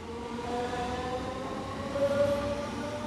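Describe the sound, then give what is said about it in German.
An S-Bahn commuter train in Saarland rumbles past, a steady low roar with a thin electric motor whine on top, swelling slightly toward the end with no voices. “Machen Sie sich bereit für den S-Bahn-Zauber im Saarland.”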